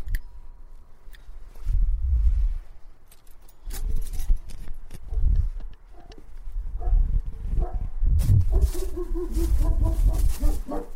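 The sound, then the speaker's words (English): A dog barks excitedly in repeated bursts, fairly loud, with short yaps and rougher barks continuing throughout, no one speaking, as its owner rings the doorbell arriving home at about one in the morning. “ring the doorbell, and here comes the barking.”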